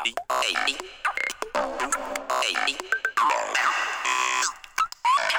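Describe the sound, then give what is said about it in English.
A choppy electronic sampler pattern with a randomizer effect applied jumps erratically between pitched fragments and glitchy stutters, loud, with sudden cuts and shifting tones that sound randomized rather than repeating. “You can change pitch, you can add some, uh, if you want, uh, a, uh, a, kind of a, uh, um, a randomizer, then it sounds like this.”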